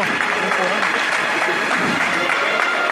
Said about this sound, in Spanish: Ya pisando íntegramente el mármol, el último destello de la claridad de este Viernes Santo va a rozar la cara del Señor, que ahora sí, este aplauso unánime en toda la plaza marca que aquí se acaba su estación de penitencia.